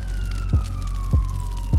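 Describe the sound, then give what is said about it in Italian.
A police car siren wails steadily, with a deep pulsing whoop repeating roughly every half second beneath the high tone. It sounds fairly loud, with no voices. “Il ragazzo chiama immediatamente la polizia.”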